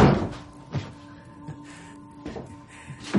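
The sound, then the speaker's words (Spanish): A slightly open basement door off a hallway slams shut abruptly with a heavy wooden thud, followed by a few softer knocks and rattles spaced out over a low, steady hum. “Se acerca a la puerta del sótano que está ligeramente abierta. Se cierra bruscamente.”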